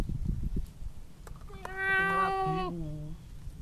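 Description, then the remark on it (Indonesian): A cat gives a single drawn-out meow, clear, rising then sliding down. Low rumbling background noise fills the moment just before it. “kucing meow meow meow”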